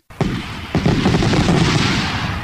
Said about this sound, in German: Am Ostersonntag jedoch weckten donnernde Böllerschüsse die Leute auf dem Schlaf.